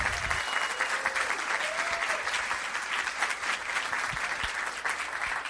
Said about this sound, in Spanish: Vamos a recibirlo con un fuerte aplauso.